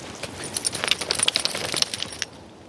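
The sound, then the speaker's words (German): A dog, Frieda, shakes its flapping ears, setting off a rapid burst of bright metallic jingling, like collar tags, for about two seconds before it stops. No one speaks. “Und in meinem Intro gibt es so ein Ohrschlackern.”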